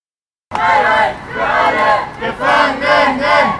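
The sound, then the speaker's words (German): A crowd of supporters outside the prisons in Moabit and Tegel shouts and chants together in solidarity with a prisoner, in loud, rhythmic bursts, voices rising and falling in repeated waves, with no single clear speaker standing out. “kam Unterstützerin, um ihn zu grüßen. Und es wurden auch Redebeiträge gehalten. Ihr werdet einiges davon jetzt hier in der Sendung hören.”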